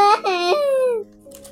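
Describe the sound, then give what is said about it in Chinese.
A voice imitates Thumbelina crying loudly: high-pitched, two short sobbing bursts followed by one long, drawn-out wail that slowly falls in pitch before trailing off into quiet. “拇指姑娘不愿意跟着一个讨厌的蛤蟆住在一起，于是她又大声地哭了起来。”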